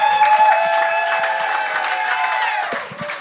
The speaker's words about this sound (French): je voulais qu'on l'applaudisse